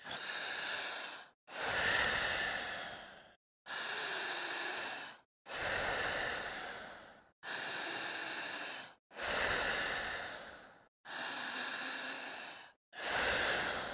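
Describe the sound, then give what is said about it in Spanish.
Loud, forceful breaths pushed in and out in a steady, quick rhythm during a breathing exercise, about eight heavy rushing huffs with barely a pause between them and no talking. “Al ir respirando, con la misma fuerza, con la misma intensidad, ojos abiertos”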